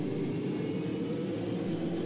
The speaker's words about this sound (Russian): Раздался рев. Разгоняя ночь, включенными на полную мощность прожекторами над разрушенной часовней завис мой боевой катер.